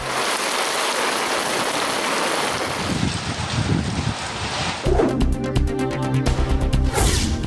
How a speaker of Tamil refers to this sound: திருவாரூர் காஞ்சிபுரம் நெல்லை திருவட்டாறு உள்ளிட்ட இடங்களில் கோடை மழை அக்னி வெயில் துவங்கிய நிலையில் குளிர்வித்ததால் மக்கள் மகிழ்ச்சி